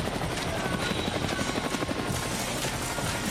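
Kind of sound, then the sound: vehicle, helicopter flying overhead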